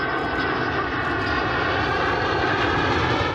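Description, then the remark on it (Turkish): F-16 fighter jets take off one after another from Diyarbakır and İncirlik in Turkey, roaring loudly and continuously, a dense, steady engine blast that holds at full strength throughout, with no voices. “Aynı dakikalarda jetler Diyarbakır ve İncirlik'ten peş peşe havalandı.”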